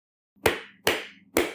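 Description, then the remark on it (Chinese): Three sharp hand claps, spaced evenly at a slow, deliberate pace, each a crisp smack with a short ringing tail, over a faint low hum and no voices. “除了鼓掌。”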